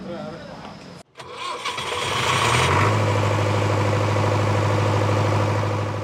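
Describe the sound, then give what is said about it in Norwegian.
A shop's diesel generator, switched on when the public power supply cut out, cranks and catches, then settles into a loud, steady low-pitched drone with a rapid rhythmic chug that runs on unchanged after a brief silence and startup roar. “har akkurat skrudd på sitt aggregat fordi den offentlige strømmen, som varer i noen få timer om dagen, plutselig forsvinner.”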